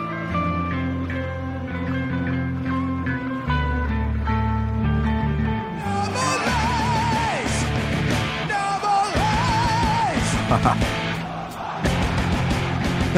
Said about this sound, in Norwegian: Hør på det her. Hør på den allsangen.